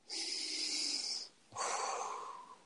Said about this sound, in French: Alors, une respiration